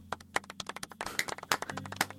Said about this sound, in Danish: Det er sådan en ret våde klap, det her. Det, de er lidt, ja, det er håndflader. Altså det, man kan høre, det er håndflader. håndflader. Ja. Ja. Svedige håndflader.